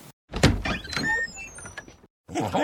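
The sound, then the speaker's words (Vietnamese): A door is opened with a rattling, scraping slide and high squeaks lasting under two seconds, followed by a short pause and another brief sound. “Bà cứ ra và mở cửa đi”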